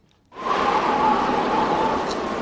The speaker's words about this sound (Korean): 어, 바람 소리입니다. 네. 봄바람 소리예요. 바람 소리입니다.